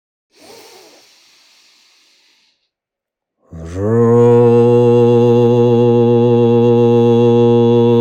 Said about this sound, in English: The seed syllable sounds that we will make now together for the mid morning, for the emergence, is ro. Ro.